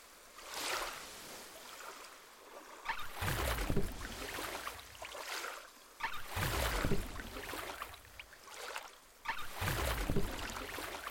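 Oars dip and pull through water in a steady rhythm as a boat that was floating at the water's edge, with two people aboard, is rowed, each stroke a splashing surge followed by a trickling pause, about every three seconds. No voices.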